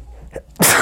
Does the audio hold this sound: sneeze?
yes